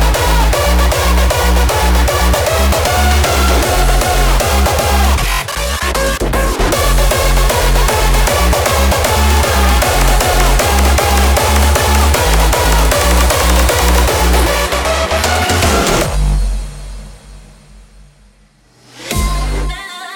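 A loud electronic dance track pounds along with a steady four-on-the-floor kick and dense synth layers, then drops to a sparse, quieter breakdown near the end before swelling back briefly.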